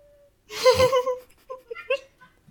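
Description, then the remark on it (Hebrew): A cat meows at a fly that is too high for it: one longer, strained call followed by a few short, chirpy meows in quick succession, with no talking over them. “מה החתול? נורא זבוב. אני יודעת. זה זבוב גבוה לו מדי, אז הוא צועק עליו.”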